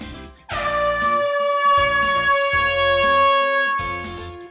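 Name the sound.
horn sound effect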